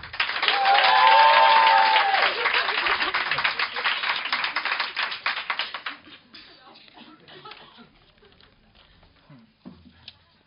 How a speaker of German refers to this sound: Also einmal den Applaus fürs Bein streicheln. Der Applaus für den Gefallen.